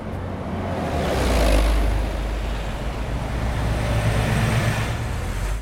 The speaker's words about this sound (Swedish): 55 decibel är cirka denna lyden. Ett aircondition-anlägg på hotellrummet ditt.